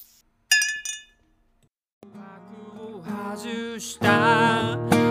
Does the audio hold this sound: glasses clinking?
yes